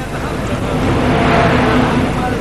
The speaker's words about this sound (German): Hey, da rauscht er rein. Der Mercedes unter den Zügen. Der Walter Gropius, ICE aus München, Berlin Ankunft. An sich 22.05 Uhr, heute aber 22.03 Uhr. Und jetzt ist auch zum letzten klar geworden, wir senden heute live vom Zoo.